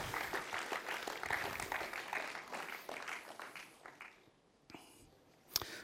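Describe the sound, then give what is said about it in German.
Audience applause for five people coming onto a stage: a dense wash of many hands clapping for about four seconds, then thinning out into a few scattered claps and a sharp final clap. “Ich glaube, es ist der Moment, wo ihr auf die Bühne kommen Lasst euch diesen fünf, seid ihr fünf Spiezermannen, ganz herzlich Applaus geben.”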